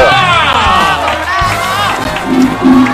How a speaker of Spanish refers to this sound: Ofrécele un, aplauso muy fuerte, por favor.